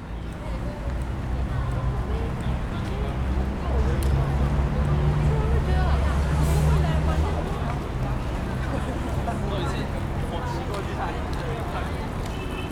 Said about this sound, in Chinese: 在这个大广场上，一样是来来回回的人。那你还听得到公车经过的声音